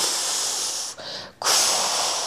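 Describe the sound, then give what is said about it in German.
A voice imitates the loud steam release of trains being heated up around three at night for the next morning, a sustained, breathy hiss, briefly broken by a short pause before the hissing surges back strongly and continues to the end. “Und dann irgendwann so gegen drei sind die wieder gekommen, dann die neun, die, die Züge, die bereit waren für, für den nächsten Morgen, die haben sie wie aufgeheizt und haben sie so, so wie, wie es hat wie, so geklungen, wie wenn Dampf abgeht, so”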